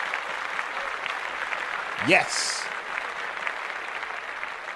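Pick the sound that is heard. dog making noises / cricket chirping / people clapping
people clapping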